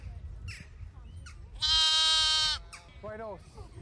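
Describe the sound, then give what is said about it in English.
A sheep on a sheep farm on the Killary Fjord in western Ireland gives a loud, wavering bleat lasting about a second, followed by a shorter, softer bleat, over a low outdoor rumble with faint calls. “After the sheepdog Holly does her thing, corralling sheep by running in semicircles around them, Holly.”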